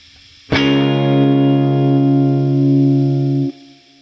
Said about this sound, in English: the fourth note is D flat. Uh, if you make a chord out of that or call it the four, that's D flat major and it sounds like this.